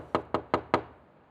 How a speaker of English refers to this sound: Knock again. No answer.